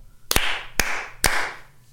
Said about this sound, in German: Sind wir ready? Dreimal klatschen, wir müssen es anfangen.